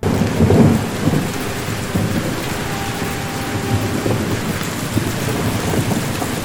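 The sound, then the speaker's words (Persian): Steady rain pours down on a villa while a deep roll of thunder rumbles early on, then fades into a continuous low, noisy downpour with faint rumbling underneath. “میبینیم که ویلای نوری که تا اون روز یه جای آرومی نشون داده شده بود در اولین روز حضور رامین بارونیه و صدای رد و برق هم میاد که نشونه به هم خوردن آرامششونه”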